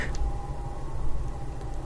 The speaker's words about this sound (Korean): 와 이게 마이크에 들어갈려나 실로 오랜만에 사이렌 소리가 이거 창문 활짝 열어놨더니 이거 뉴욕을 배경으로 한 드라마 같은데 가끔가 나오는데 수사물이나 히어로물 같은데 우리가 이 공사하고는 이런 거 못 들을 줄 알았는데 바로 옆에 지나가니까 들리네요.